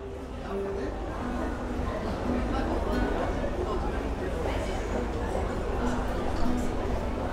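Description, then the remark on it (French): A steady crowd murmur, a dense brouhaha of many overlapping voices with no single speaker standing out, holding an even, moderate loudness throughout. “écouter la rumeur de la foule”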